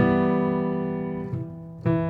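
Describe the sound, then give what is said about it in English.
An E minor chord rings out and slowly fades, then two more quick strikes land near the end, each bringing a fresh attack. It is played clearly, with no talking. “For example, this is E minor.”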